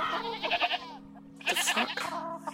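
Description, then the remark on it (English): Two wavering goat-like bleats, each a loud, harmonic, quavering cry, separated by a short pause, over a steady low hum. “Okay, yeah, you head over in that direction and you hear a couple more bleating sounds.”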